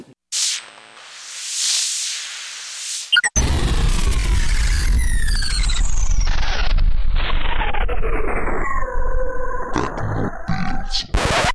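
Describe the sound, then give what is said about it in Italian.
A short theme jingle: about three seconds of hissing whoosh, then a loud, rough growling roar whose pitch slides steadily downward before cutting off abruptly. No voices. “Per cui, senza altri indugi, sigla.”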